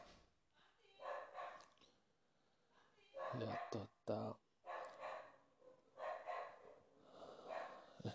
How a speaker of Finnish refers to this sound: Koirat alkoi haukkua.